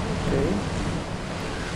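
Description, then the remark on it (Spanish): A steady wash of sea waves surrounding an island, a continuous rushing roar of surf with a windy edge, holding at an even loudness without clear breaks between swells. “Camina hasta que escuches el sonido del mar.”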